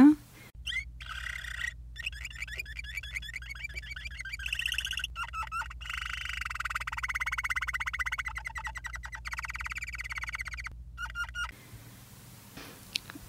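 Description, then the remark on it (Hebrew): An adult canary, a common pet bird, sings a rich, continuous song of rapid high chirps, trills and whistled phrases for about eleven seconds, fairly loud over a low steady hum, then stops abruptly. “ושירת הבוגר, לעומת זאת, היא, היא שאותה גם נשמע לרגע.”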